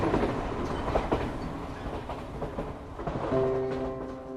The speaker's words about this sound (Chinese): 小女孩就带着他坐了一段火车，走了一段路。